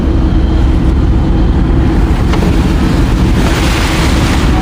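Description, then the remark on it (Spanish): A vehicle drives off the road along rain-soaked dirt tracks in a geopark in Granada, Spain, its engine a steady low rumble mixed with crunching, sloshing tyre noise and a gusty, airy hiss that swells toward the end. No one speaks. “Ahora ya estamos conduciendo por un terreno completamente distinto.”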